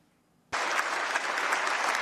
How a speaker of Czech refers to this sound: Tento potlesk už ale musela vyslechnout sama.